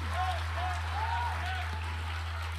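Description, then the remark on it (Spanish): An audience applauds loudly for Christ Jesus in a steady, dense wash of clapping, with voices calling and cheering over it and a low constant hum underneath. “Come fuerte el aplauso a Cristo Jesús.”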